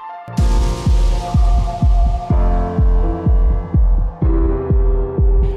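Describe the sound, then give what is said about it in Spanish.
An electronic dance track plays loudly, driven by a steady four-on-the-floor kick drum with deep pulsing bass and sustained synth tones layered above, no voices present. “Esto fue … de … en Top EDM por Aldo Radio”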